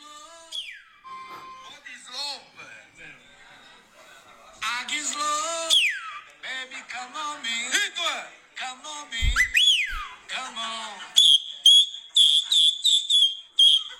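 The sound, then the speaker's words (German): A man whistles loudly and shrilly in a TikTok video, sweeping up and down in pitch, then settling into a series of sharp, repeated high whistles toward the end, mixed with some background voices. “Er pfeift super laut auf, auf jeden Fall.”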